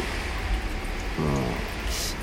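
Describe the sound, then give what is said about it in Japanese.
A steady, dense roar of typhoon wind and driving rain heard from inside a building on the 9th floor during one of the strongest typhoons on record, continuous throughout, with a brief low murmur of a voice partway through. “人間は無力だ、3年前の観測史上最大級の台風日に”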